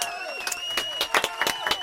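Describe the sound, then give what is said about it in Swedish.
A short burst of applause with several pairs of hands clapping irregularly, while a high steady tone hums underneath and some crowd murmur fills in. “vi tyckte det var bra. Du ska Ja, få en applåd.”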